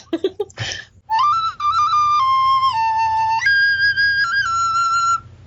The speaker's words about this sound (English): No, yeah. it's a flute. It's, okay. it's like a recorder.